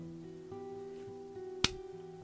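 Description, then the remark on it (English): A single sharp, crisp chop of a knife cutting the top off a pineapple, loud, over a steady low background hum. “That was the sound of me chopping the pineapple head off and putting my straw in it and Mmm, delicious.”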